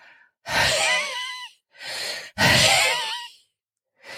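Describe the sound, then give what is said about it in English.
A voice imitates wheezing: two long, raspy, whistling breaths with a shorter breathy one between them and another starting at the end, fairly loud, with no talking. “To wheeze is this kind of extended escape of air sound.”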